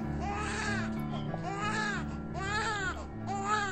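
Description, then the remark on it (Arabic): An infant cries in four long, rising-and-falling wails with brief gasps between them, steady in loudness, over a low constant hum in the background. “وركع مرة أخرى وأخذ بيده يبحث متمعن من خلال الشقوق الضيقة في المساحة الصغيرة أسفل الجثة وفجأة صرخ بإثارة هناك طفل هناك طفل”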